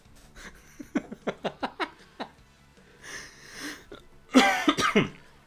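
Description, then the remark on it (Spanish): A coughing fit brought on by laughter and asthma: a quick run of short, laugh-like bursts, then a raspy wheezing breath, ending in a loud, harsh cluster of hacking coughs. “Oh, entre la risa y el asma me está dando algo.”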